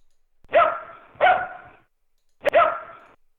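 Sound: domestic dog barking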